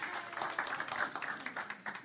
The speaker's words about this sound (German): Das ist unser Praktikant. Äh, ein, ein Applaus für den Praktikanten